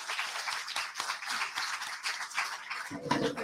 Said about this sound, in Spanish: Un aplauso para Bienvenida institucional.